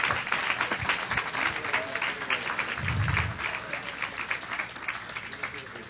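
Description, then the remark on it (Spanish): An audience applauds the husbands steadily for several seconds, a dense wash of many hands clapping at once, with a brief low rumble partway through and no voices standing out. “Just give a hand for the husbands because we did that for the wives.”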